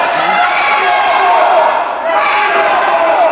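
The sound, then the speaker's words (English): A loud arena crowd at a wrestling match jeers and roars continuously at a wrestler, a dense wall of many voices shouting at once, dipping briefly before surging back to full volume. “This crowd just chewing Oliver up. Yeah, very loud.”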